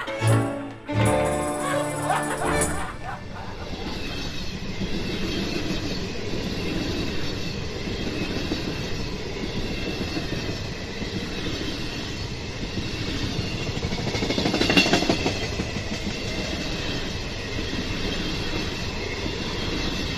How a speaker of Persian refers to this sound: کارمند که از برخورد رئیسش متحجب شده بود میگه که چیکار کنم قربان با این سرصدای قطار که نمیتونه آدم بخوابه